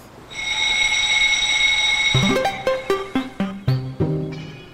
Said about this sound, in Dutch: First things first, in case you hear an alarm, you leave your workplace and you come over here toward the muster station. The sound of an alarm is